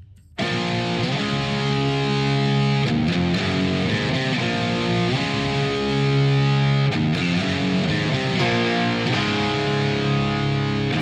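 A loud, dense heavy rock passage driven by thick distorted guitars, with sustained power chords shifting every few seconds and no vocals, continuous from start to finish.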